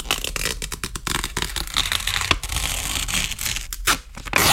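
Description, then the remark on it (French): Crisp, ripping paper sounds fill the moment as continuous-feed printer sheets, perforated along the side, are torn apart one from another, a dense crackling run of tears punctuated by sharper separations, fairly loud with no talking. “On dessinait dessus et on les séparait les unes des autres dans un grand...”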